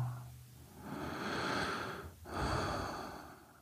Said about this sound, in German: Und das ist nichts, was ich mache, das Atmen, sondern das ist gerade passiert. Das ist einfach die Einladung, gerade jetzt mal für einen Moment loszulassen und bei dir anzukommen.